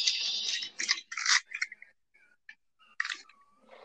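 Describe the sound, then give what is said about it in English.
Wet mouth sounds of someone eating a ring pop: a cluster of sticky slurping and crunching bursts, then quieter intermittent smacks and clicks, with no talking. “If you're gonna eat a ring pop, I'm finishing sour patch kids.”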